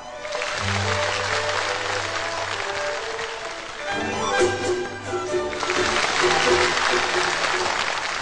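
An audience breaks into loud, sustained applause as a man is welcomed onto the stage, a dense wash of clapping that continues steadily for about eight seconds, with faint music underneath.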